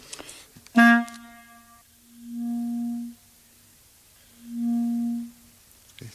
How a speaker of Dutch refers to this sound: Je hoort hem nog komen, hè? Ja, je hoort de galm, lichtgalmpje. Ja, precies. En dat was vroeger dus bijna niet te vullen.